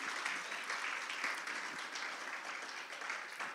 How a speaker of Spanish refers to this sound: Vamos a darle otro aplauso a los padres que están aquí en esta mañana.